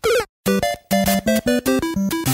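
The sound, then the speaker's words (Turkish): A short, bright, sad chiptune death jingle from a retro video game, a quick falling flourish followed by a run of clipped, bouncy notes, loud with no voices. “Şu hüzünlü sesi unutabilecek biri var mı aranızda?”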